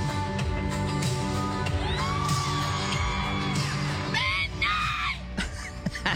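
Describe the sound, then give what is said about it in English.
A fan at the back of a live concert crowd lets out loud, piercing shrieks over the roar of the crowd, with two drawn-out high-pitched squeals rising above the dense background noise. “I would almost like to hear a whole concert just performed by this one, the, the shrieker in the back there.”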